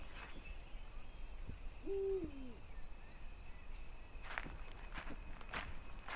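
A quiet forest at night with a single low, wavering owl hoot, followed by several crunching footsteps over a faint steady hiss of insects.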